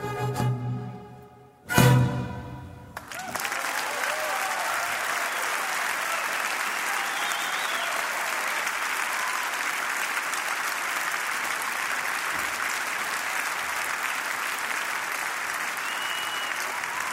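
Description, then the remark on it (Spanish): A brief voice at the start gives way to a large audience's applause, dense and steady, sustained at an even loudness for well over ten seconds without fading. “A mí también me dan unas ganas terribles de aplaudir.”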